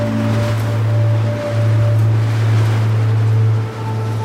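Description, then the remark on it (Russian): Ocean surf roars steadily, rolling in over the feet of a person standing at the shore and washing back out, with slight swells and dips, layered over a constant low droning hum. No voices. “А прибой накатывает на мои ноги и откатывает назад.”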